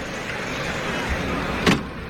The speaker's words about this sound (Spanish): Ahí está, el cerrojazo de la puerta de Toriles para Juan Ortega.